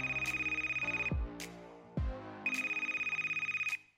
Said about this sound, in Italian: proprio in quel momento squilla il telefono sulla sua scrivania.